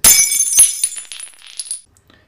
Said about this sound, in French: L'effet théâtral fut cassé par un bruit de verre brisé. Madame Barrymore avait lâché un bibelot qu'elle avait dans la main.